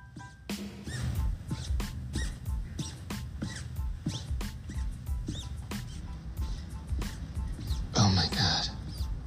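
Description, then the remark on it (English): Squeaky shoes worn by a walking woman squeak sharply with each step, a quick, steady run of high squeals, with muffled voices faintly underneath and a louder, longer squeak near the end. “Those real shoes or those fucking dog toys?”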